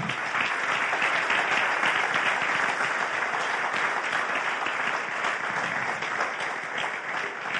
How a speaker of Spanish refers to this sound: Damos un aplauso al que viene.